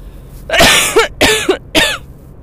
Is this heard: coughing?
yes